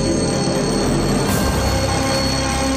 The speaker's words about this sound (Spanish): Al sonar el despertador